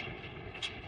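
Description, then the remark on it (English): A steady, droning mechanical hum from the running pump of a producing oil well, fairly loud, with a brief brighter hiss near the end. No voices. “That's the sound of a producing oil well and the sound of a smart investment.”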